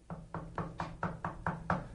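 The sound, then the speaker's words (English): A rapid, steady series of about eight sharp knocks, evenly spaced, like someone rapping on a door, with a faint low hum underneath and no talking. “and I look at the front door because I thought someone was knocking on the front door”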